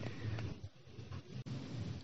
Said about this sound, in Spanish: La habitación será umbrosa, fresca, y estará llena del murmullo de la... ¿Lluvia? Sí, de la lluvia.